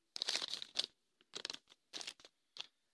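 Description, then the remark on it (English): A crumpled-up paper list being handled, with several short bursts of dry crinkling and rustling separated by brief pauses, fairly soft and with no one speaking. “This is the list that I crumpled up earlier.”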